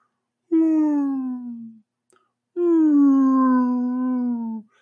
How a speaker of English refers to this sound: like whale sounds, uh, and you watch as like these illusions of whales like fly and float over top of wherever you're walking